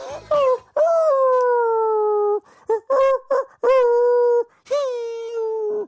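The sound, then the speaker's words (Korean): A man in a broadcast studio imitates a dog howling with a run of drawn-out, wavering howls and short whimpering yips, loud, with brief pauses between the calls. “아까 제가 했던 어, 강아지 소리보다 형이 더 잘하시는 것 같아요.”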